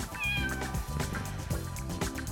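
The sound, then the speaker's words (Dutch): Broertje, the farm cat at the city farm in Rotterdam's Fruithaven, meows repeatedly in drawn-out, whining calls, fairly loud, over a steady background of music-like harmonic tones. “Zelfs broertje de boerderijkat die houdt van kerst.”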